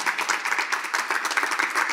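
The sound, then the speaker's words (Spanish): Steady, dense applause from a crowd, many hands clapping at once in a continuous, moderately loud wash with no voices standing out; applause for Jesus after a prayer. “Dale, bien fuerte ese aplauso a Jesús.”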